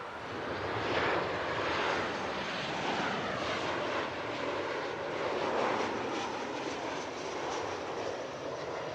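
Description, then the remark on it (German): Steady, loud roar of an airplane passing overhead, a broad droning rumble that holds throughout with slight swells, with no voices present. “Richtig, um den Flugverkehr und besser gesagt den Lärm, der durch den Flugverkehr entsteht.”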